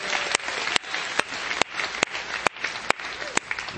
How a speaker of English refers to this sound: But we also thank the Lord for our beloved senior pastor who is with the Kids Way Children's Ministry this weekend. Can we clap our hands for Pastor Lance and his family?